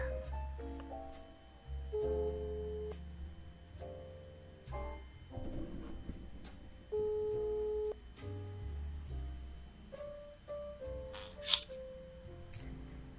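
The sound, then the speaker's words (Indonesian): A telephone ringback tone plays over the line while a call connects, a thin, tinny melody of shifting steady tones, moderately loud, with no one speaking. “ya udah kita telepon dia ya”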